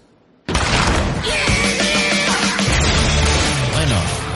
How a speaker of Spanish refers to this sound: Ahora toca Left 4 Dead, como ya habrán podido imaginar, esos ruidos de zombies, disparos, de escopeta que acaban de escuchar. Pues aquí estamos para hablar de Left 4 Dead, el juego de Valve.